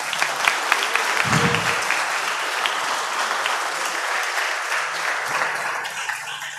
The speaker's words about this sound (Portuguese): Deu uma linda salva de palmas.